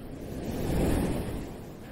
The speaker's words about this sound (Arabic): تعالوا معي نتمشى على شط البحر غمضوا عينيكم خدوا نفس نفس عميق وتخيلوا إنكم على شط البحر واسمعوا صوت الموج